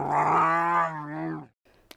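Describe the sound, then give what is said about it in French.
A huge wolf's deep, sustained growl as it advances out of the darkness, one fairly loud rumble lasting about a second and a half before cutting off, followed by a brief faint noise and a small click. “Soudain de l'obscurité surgit un loup énorme qui avance vers eux en grognant.”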